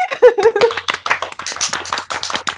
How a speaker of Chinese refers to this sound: 领导鼓掌。